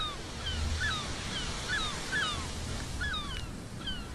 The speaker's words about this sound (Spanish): Escucha las olas del mar.